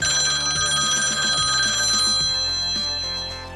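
A telephone rings steadily and loudly for a few seconds on an outgoing call to a friend, a bright, pulsing electronic ring filling the line with no voices over it.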